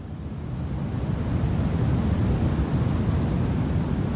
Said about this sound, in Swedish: man köper en liten maskin som för 800 spänn som gör brus